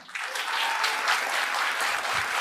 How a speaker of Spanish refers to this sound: O sea, aquí vamos muchachos con el ejercicio. Vamos por aplausos.